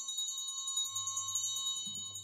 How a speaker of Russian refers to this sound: Вдруг зазвенел звонок.